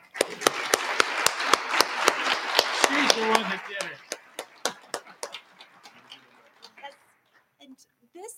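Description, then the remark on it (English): An audience breaks into applause thanking a man for his service to the state of Colorado, dense and loud at first with sharp rhythmic claps standing out, then thinning to scattered claps as it fades, with faint murmuring voices underneath. “So I hope you'll all join me in a round of applause thanking him for his service to the state of Colorado.”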